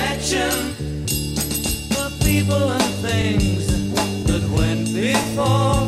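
A 1960s rock song plays loudly and steadily, with a driving drum beat, a firm bass line and layered guitars, and no one talking over it.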